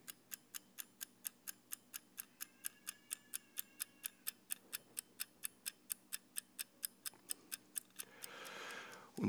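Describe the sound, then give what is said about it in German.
A mechanical metronome ticks steadily and briskly, about three clicks per second, crisp with no voices, its small wheel mechanism swinging left and right with a strong down-stroke and a lighter up-stroke, before a brief rustling, handling noise cuts in at the end. “Ein starkes Ab und ein leichtes Auf. Man hört die Mechanik dahinter.”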